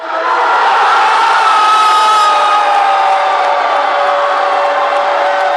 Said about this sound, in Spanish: El gol suena más fuerte que los goles de Suecia porque lo celebra todo el bar.